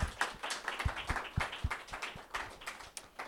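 Several people applaud together, a dense patter of overlapping claps that keeps up steadily for a few seconds at moderate loudness, with no voices over it.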